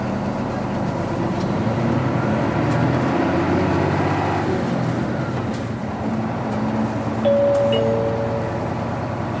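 A Toei (Tokyo metropolitan) city bus engine, approaching the Eitaibashi stop, rumbles steadily from start to finish, a deep continuous drone with a faint mechanical whine rising briefly near the end, with no one speaking.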